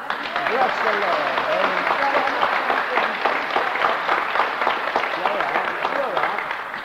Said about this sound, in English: Give her a clap.